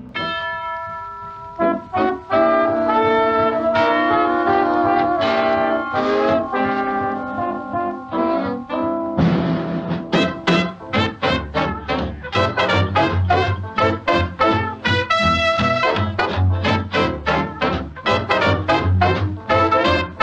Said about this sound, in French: où la rythmique fait place au trombone lead, à trois saxophones et une cloche.